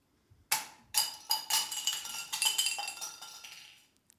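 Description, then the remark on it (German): Valuable crystal glasses are dropped and shatter: a sharp bright impact followed by several more bursts and a long tinkling spray of shards that gradually fades out. No one speaks. “Nun sind sie zerschellt in Tausenden von Scherben.”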